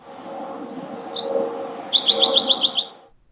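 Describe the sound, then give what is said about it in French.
A small bird sings a quick run of bright chirps and whistles, ending in a fast rhythmic trill, clear over a low murmuring background hum. “Et tout ça, est sur, tout ça est sur NetTwig, la version oiseau de Netflix, dès lundi prochain.”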